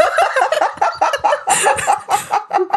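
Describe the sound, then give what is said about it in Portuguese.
A person vocally imitates an old truck climbing uphill and grinding through its gears, a loud, rapid sputtering rattle of choppy voiced bursts lasting a few seconds. “A sua imitação de caminhão é muito boa.”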